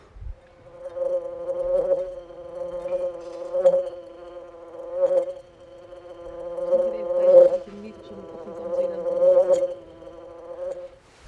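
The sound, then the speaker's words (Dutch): A wasp buzzes inside a beer can left from the previous evening, a steady, resonant drone that swells and fades in loudness every couple of seconds for the whole stretch, with no one talking. “En nu is er een wesp in mijn bierblik gekropen. Dat klinkt zo.”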